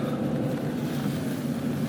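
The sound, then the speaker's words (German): A steamroller rolls past with a heavy, steady engine rumble, a loud low drone holding even throughout with no voices over it. “huch, eine Dampfwalze”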